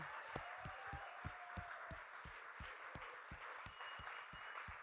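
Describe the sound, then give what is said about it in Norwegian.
A crowd applauds the members of the leadership team, who have stood up, steadily for about five seconds, a dense wash of clapping with a strong, regular rhythmic beat running through it, as if many hands clap in time. “Så gi meg en applaus for dem.”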